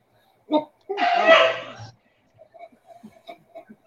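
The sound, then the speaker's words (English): A neighbor's dog barks: one short yelp, then a longer, rough, strained bark lasting about a second, followed by faint scattered sounds in the background. “that's his dog.”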